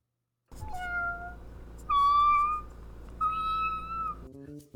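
Cats meowing in a short sequence: several drawn-out, wavering meows one after another, fairly loud, over a steady low background hum, with no talking.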